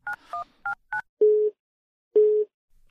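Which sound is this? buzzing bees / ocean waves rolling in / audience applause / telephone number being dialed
telephone number being dialed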